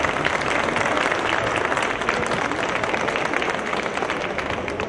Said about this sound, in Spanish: Un aplauso para todos los entes que nos acompañan, por favor.